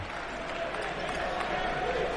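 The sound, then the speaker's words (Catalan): A large crowd cheers and roars steadily at a basketball game between Joventut and Prometei, a dense, continuous wash of voices and noise holding at a fairly even level throughout. “El públic anima.”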